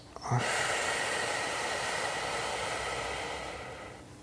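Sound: slow exhalation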